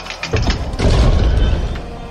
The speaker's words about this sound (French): Lors de la première attaque lancée contre les Anglais au Fort Moose, d'Iberville réussit à entrer dans le fort par la grande porte de la palissade mais la porte se referme abruptement derrière lui.